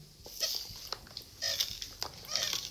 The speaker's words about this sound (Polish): nad moją kuksą w tym momencie trzymam jedną ręką po prostu ekspres, a drugą naciskam tłok. Ja teraz 8 naciśnięć, żeby wywołać odpowiednie ciśnienie.